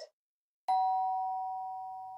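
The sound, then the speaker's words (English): A doorbell rings once with a sharp strike, its clear metallic tone hanging and slowly fading, preceded by a brief soft knock-like sound. “Only one bell.”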